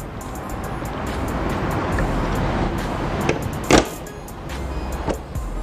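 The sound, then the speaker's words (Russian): The hood of a Ford car slams shut once with a sharp, loud metallic thud against steady outdoor rumble and wind, followed by a couple of fainter knocks. “Ну все, закрыли капот.”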